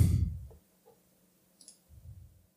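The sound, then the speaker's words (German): A few quiet computer mouse clicks at irregular intervals as someone clicks to randomly draw a year, with soft low thumps and rustling from handling the desk between them. “Dann klicke ich mal ein bisschen hier.”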